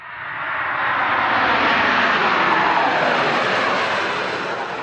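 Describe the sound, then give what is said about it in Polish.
The engines of an Airbus A380 jet airliner, the largest commercial aircraft in the world, roar steadily and loudly, a broad rushing drone that swells slightly and eases off at the end, with no voices over it. “To jest największy samolot komercyjny na świecie.”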